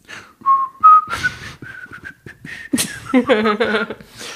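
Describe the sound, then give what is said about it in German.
Someone whistles a short, lilting little tune to himself, the clear pitched notes hopping and sliding, with a few breathy puffs and a brief raspy burst near the end. “Und Danger Moretti pfiff ein Liedchen vor sich hin.”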